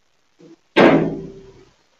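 A door swings shut on a cat with a sharp, heavy slam, preceded by a faint creak or bump, then a resonant ringing decay lasting about a second.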